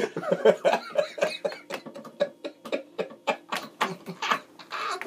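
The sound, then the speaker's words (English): A rapid string of harsh, breathy bursts as a man laughs so hard that his wheezing laughter breaks into a prolonged coughing fit, with short gasps between the hacks and no clear speech. “laughed so hard he coughed up some coal, so he had to leave to go spit it out.”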